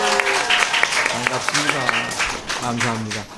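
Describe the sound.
Fans of singer a singer, gathered outside by the window in slightly hot weather, cheer and shout together, many high voices overlapping into a loud, sustained roar with scattered claps, steady for a few seconds before easing slightly at the end.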